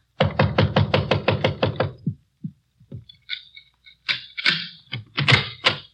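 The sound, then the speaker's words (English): Police officers knock on a locked door in a rapid burst of about a dozen loud knocks, followed by a few scattered thumps and rattling, then several more heavy knocks. “Try the door.”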